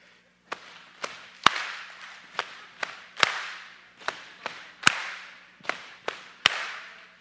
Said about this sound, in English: Ready? We're going to do two times on the legs and then clap. All right, ready?